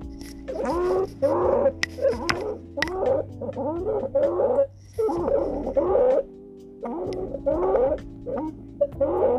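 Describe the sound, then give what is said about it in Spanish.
Inspiratory stridor from a child with croup: harsh, high-pitched crowing breaths repeating about once a second, loud, with a few brief pauses between bursts. “Muy bien, ese es el estridor que, produce el club.”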